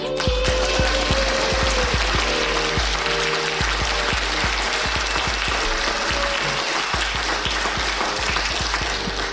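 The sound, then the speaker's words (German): Sustained audience applause at the 37th Chaos Communication Congress during a live broadcast, a dense, steady wash of many hands clapping at a loud, even level for several seconds, with scattered sharper claps poking through and a low tonal hum underneath. “Und den Applaus, den ihr hört, den hört ihr, weil wir live auf dem 37. Chaos Communication Kongress senden”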